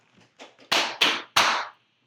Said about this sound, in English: Let's just all like clap a bit, and then so yeah, that'll sure we... signal the uh, end of the break or end of the edit for you.